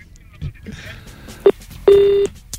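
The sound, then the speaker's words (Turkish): A telephone call signal for an incoming phone call sounds: a short electronic tone followed by a longer sustained one, fairly loud, over faint background noise and murmuring voices. “Telefonumuz var.”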